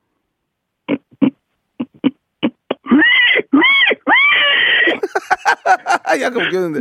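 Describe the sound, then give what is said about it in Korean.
A voice imitates a pig startled at the sight of Park Myung-soo: a few short grunts, then a string of loud, strained, squealing shrieks, followed by laughter and brief talk. “저를 보고 소스라치게 예, 예 돼지 멱단 소리 예, 들어보겠습니다.”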